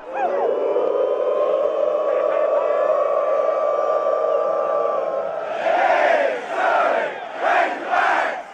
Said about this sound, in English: In case you didn't catch that, that was University of Arkansas Razorback fans wooing Pig Sooie. They're cheering. Well, it's called calling the hogs. That's what you do at Razorback football games. There's nothing quite like it anywhere else.